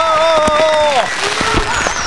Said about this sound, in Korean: 폭죽이 터집니다 우리의 인생에도 이렇게 폭죽이 터지기를 바라면서